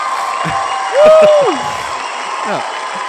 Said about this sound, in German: Ja, ja warte, ich mach mal eben kurz Jubel rein.